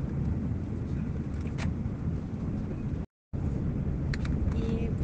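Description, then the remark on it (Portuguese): A steady, heavy low rumble of a bus engine fills the space from inside the vehicle while riding a bus to Istanbul, continuous and loud, with a brief silent cut partway through and faint higher rattles above. “É, eu tô indo agora para Istambul, no qual eu tô no ônibus falando com vocês.”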